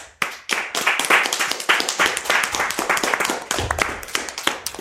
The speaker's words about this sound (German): Den möchte ich in Zukunft auch immer haben, den Applaus nach so einer Sendung.